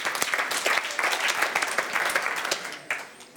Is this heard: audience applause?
yes